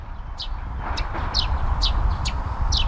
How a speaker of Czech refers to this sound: to je vrabec. To jsou ti vrabčáci, jenže většinou ho neslyšíme takhle dobře jenom jednoho, ale je jich tam mnohem víc zaraz a to, toho štěbetání je taky mnohem víc.